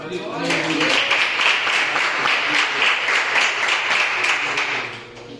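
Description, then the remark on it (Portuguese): An audience applauds steadily for several seconds, offering applause to the Lord, a dense wash of many hands clapping at once that swells quickly, holds even and loud, then thins out near the end. “Eu agradeço a oportunidade e as palmas do Senhor.”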